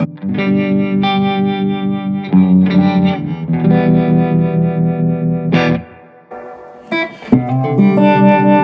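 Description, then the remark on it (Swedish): An electric guitar plays through an amplifier with bias tremolo working on the power tube and reverb: sustained, harmonically rich chords with a pulsing, wavering tremolo and a wash of reverb, loud, with a brief drop in level before the strumming resumes. “Och lite reverb också, även om det ligger i fel ordning.”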